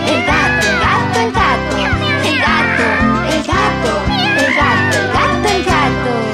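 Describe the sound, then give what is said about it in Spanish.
A voice sings imitated cat meows in a Spanish animal-guessing song, a quick series of mews over a bright, steady musical backing with a bouncy rhythm, loud throughout. “Maullo y ronroneo, miau, miau, miau, miau.”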